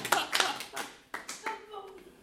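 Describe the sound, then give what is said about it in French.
A handful of scattered, uneven hand claps from a small group, sparse rather than sustained, fading as murmuring voices and a bit of laughter take over. “J'ai pas le droit d'applaudissement, eux autres, c'est quoi ah, l'affaire?”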